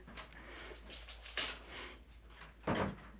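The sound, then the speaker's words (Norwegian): A door is opened to let someone in: a soft click, then a louder thud of the latch and handle a second later, with faint rustling and no voices. “Bare lukke opp for Karo, som må klippe igjen.”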